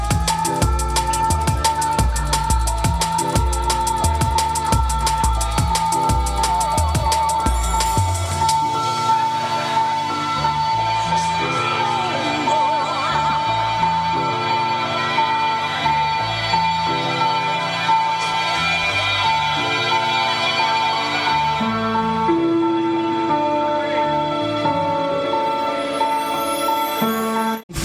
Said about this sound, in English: It's a six track EP. And I'm going to play you the title track.